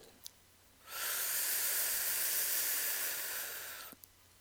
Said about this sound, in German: Also einmal tief Luft holen